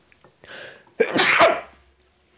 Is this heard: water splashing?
no